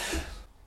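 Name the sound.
sneeze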